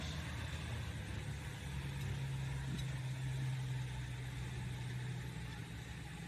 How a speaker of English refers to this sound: Four and a half inch max turbo exhaust, 24 532 pulling tires.